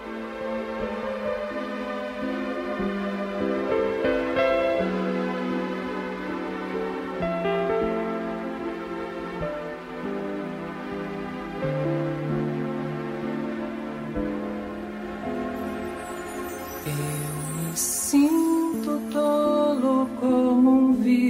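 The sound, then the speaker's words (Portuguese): An instrumental song intro plays on its own, with sustained, layered chords and a steady melodic line at a moderate, even volume, brightening with higher notes toward the end; no one speaks. “Então vamos lá ouvir essa música então.”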